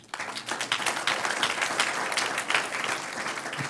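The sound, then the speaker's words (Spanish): A crowd applauds steadily, many hands clapping in a dense, crackling wash that stays fairly loud and even throughout, with no voices standing out. “un aplauso al que vive.”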